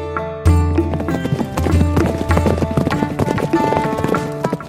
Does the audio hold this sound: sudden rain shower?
no